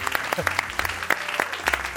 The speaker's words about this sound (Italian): Benvenuti a Parole Parole Storie di Canzoni su Radio 2 e l'applauso più bello adesso facciamolo agli spostati.